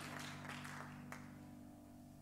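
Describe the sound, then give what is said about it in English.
A crowd claps together in a soft, dense patter that fades slightly over two seconds, over a steady low sustained tone; people giving the Lord a hand clap of praise in the morning. “Give the Lord a good hand clap of praise this morning.”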